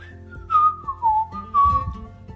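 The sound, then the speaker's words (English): Someone whistles a short, gliding tune while on a hike, a few sustained notes sliding gently up and down, clear with no talking over it. “It's kind of fun when you hike to whistle.”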